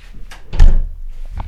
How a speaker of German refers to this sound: So, ich muss auch mal die Lüftung anmachen. So, ähm, nee, dann muss ich die Türen zumachen.